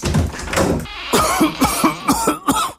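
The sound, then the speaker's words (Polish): A person coughs: one harsh cough, a short pause, then a rapid fit of about half a dozen hacking coughs in quick succession, with no speech. “Nie chowaj się, niech kaszel się schowa.”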